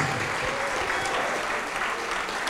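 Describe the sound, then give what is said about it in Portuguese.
An audience in Brazil applauding in the name of Jesus, a dense, sustained wash of many hands clapping at once at an even loudness throughout. “Vem para frente, todos que ergueram as mãos e vamos aplaudir mais ao nome de Jesus.”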